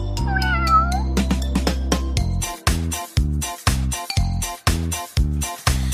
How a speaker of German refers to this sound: Wer könnte das sein? Natürlich, das ist eine Katze.